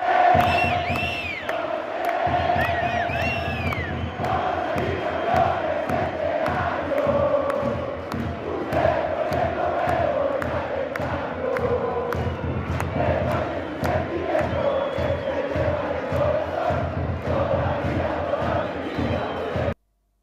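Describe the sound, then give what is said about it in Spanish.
A large crowd of Huachipato football supporters chants and sings together in a stadium, a loud, sustained roar of voices with rhythmic claps and shouts running steadily throughout. “Bueno, vamos a ver cómo está el hinchado Guachipato hoy día en el estadio.”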